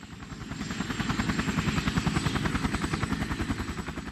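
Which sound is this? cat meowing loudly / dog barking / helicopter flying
helicopter flying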